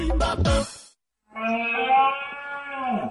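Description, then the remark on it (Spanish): A red deer stag's rutting bellow: a deep, drawn-out call rings out loud, rich and groaning, after a shorter rough call and a brief pause; the second roar holds steady before sagging at the end. “Este es el sonido de la berrea del ciervo.”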